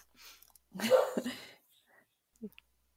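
A single soft, breathy woof from a dog, short and muffled, followed by a faint small sound and then quiet.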